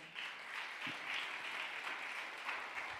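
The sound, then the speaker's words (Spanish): A large crowd applauds loudly and steadily for the full three seconds at a preacher's call, a dense, sustained wash of many hands clapping at once with no voices standing out. “Del otro aplauso fuerte.”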